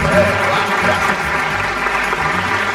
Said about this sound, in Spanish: Sí, aplausos